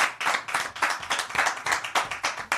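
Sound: studio applause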